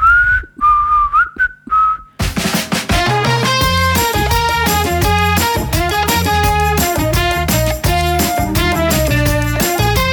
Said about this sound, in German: erstens weiß ich nicht mehr, wie man richtig pfeift und zweitens habe ich die Melodie nicht mehr parat. Außer die ersten drei Töne.